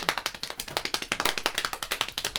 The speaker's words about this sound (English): Black Excellence this week. you get a, let me get a little clap down. Come on, bro.